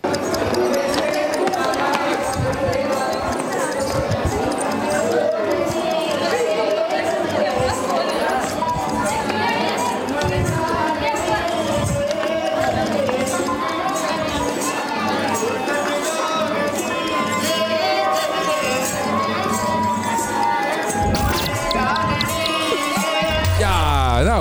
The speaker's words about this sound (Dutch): hoe de stad Pushkar in India klinkt als de avond valt